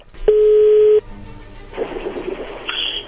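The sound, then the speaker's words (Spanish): A telephone dial tone while redialing a call: one loud, steady, mid-pitched beep holding for under a second, then cutting off into muffled line noise and faint scratchy handling sounds. “A ver, márcala de nuevo.”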